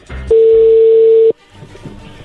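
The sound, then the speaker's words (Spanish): A telephone number being dialed for a long-distance call: one loud, steady mid-pitched phone tone holds for about a second and cuts off, followed by faint, low murmuring sounds. “Ahí se está marcando.”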